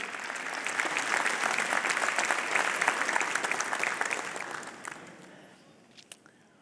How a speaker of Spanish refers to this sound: ¿Qué tal si le damos un aplauso al Señor por la, el tiempo de oración que nos dio?